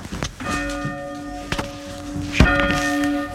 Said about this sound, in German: Das sind zwei Stricke, wo man dran zieht damit man die Glocken in Bewegung bekommt